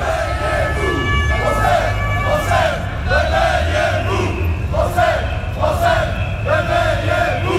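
A large crowd of angry police officers chants loudly in rhythmic, repeated bursts of shouting voices at an unauthorized protest march, over a steady low rumble of background noise.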